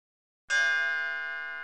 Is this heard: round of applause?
no